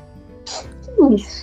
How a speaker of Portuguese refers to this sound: Desculpa, tá muito quente aqui. Tudo certo. E aí começa a dar, dar vontade de espirrar.